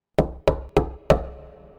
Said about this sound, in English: And then I took a big breath and I knocked on the door